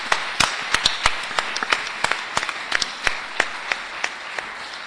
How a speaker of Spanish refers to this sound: un aplauso para nuestro queridísimo chef.